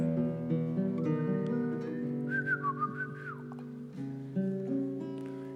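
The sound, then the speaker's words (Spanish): A short, bright whistle slides up and then falls away midway through, like a call to get someone's attention, riding over a steady, loud instrumental band backing. “Ahí le chiflé.”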